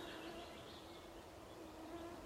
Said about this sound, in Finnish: Pienet pörriäiset pörräävät rastin ympärillä,